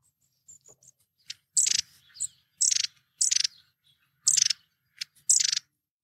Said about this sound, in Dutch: ik ga jou het geluid van de staartmees even laten horen.